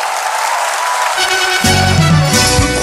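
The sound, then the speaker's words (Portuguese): Steady, dense applause from an audience, a loud continuous crackle of many hands clapping; partway through, a low tonal hum of music or voices rises beneath it. “Salve de palmas, gente, obrigado!”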